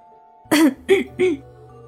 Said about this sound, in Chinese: …也是尴尬的咳嗽一声